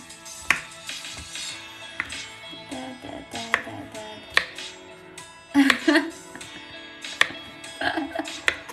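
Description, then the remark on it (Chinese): A knife chops mushrooms on a board, giving sharp, irregular taps spaced a second or so apart, some in quick pairs, while a voice murmurs faintly underneath. “抽一个观众切蘑菇了。”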